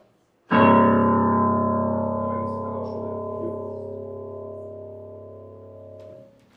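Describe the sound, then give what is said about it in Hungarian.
The lowest note of a piano strikes sharply and rings out with rich, buzzing overtones, slowly decaying over about six seconds before being damped. No voices. “Ugyanis a a legalsó hangját leülök a zongorának”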